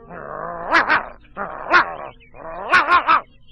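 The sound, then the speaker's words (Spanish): A dog guarding a garden gate barks in three short bouts, each a run of two or three sharp yelps over a whiny, drawn-out tone, with brief pauses between them. “El perro, que guardaba la puerta del jardín, decía así a su amigo el gato.”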